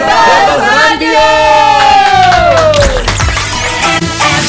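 A loud audience cheers and whoops over steady applause, a dense, sustained roar of many voices and clapping filling the whole stretch without letup.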